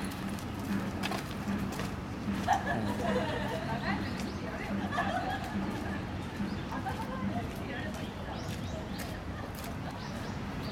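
Birds call on and off outdoors, including soft cooing, over a steady bed of crowd chatter and general open-air bustle, with nothing standing out loudly.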